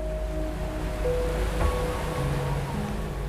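A steady, rushing wash of Atlantic Ocean surf breaking on the shore fills the scene, swelling slightly midway, with faint sustained tones humming underneath. No one speaks.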